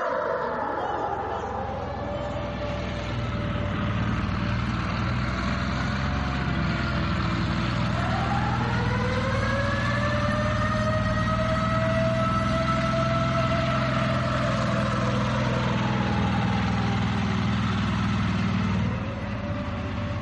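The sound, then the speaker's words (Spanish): Heavy German Panzer tanks on a World War II battlefield rumble continuously, a deep, loud engine drone lasting throughout, with high metallic squeals from the tracks gliding up and down in pitch over the roar. “Enfrente nuestro, un campo de batalla, y lo que vemos en el horizonte desvela que algo va a pasar, algo que va muy en serio, porque el sonido atronador de los tanques panzer alemanes no era cosa de broma.”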